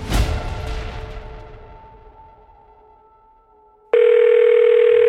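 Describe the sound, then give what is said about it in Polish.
A resonant, struck sound fades away slowly over several seconds, then a loud, steady electronic telephone ring tone cuts in abruptly and holds until the end. “O Boże, no jednak umiesz ten telefon odebrać.”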